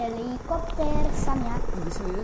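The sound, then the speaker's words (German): A voice imitates a helicopter, making a steady, wavering whirring hum with a low rumble underneath, fairly loud, lasting a couple of seconds. “Bin ein Hubschrauber.”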